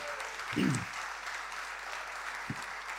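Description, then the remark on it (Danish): An audience applauds a speaker at a football event, a dense wash of many hands clapping at an even level throughout, with a couple of brief low thumps or murmurs under it. “Det er dejligt at se jer, og tak for de fine klapsalver.”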